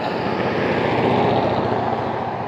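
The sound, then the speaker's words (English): Steady, loud roar of traffic with a deep engine drone that holds constant throughout, as if a heavy vehicle is passing. No voices are heard. “And you can hear the traffic, so I'll be wrapping it up here in about a minute.”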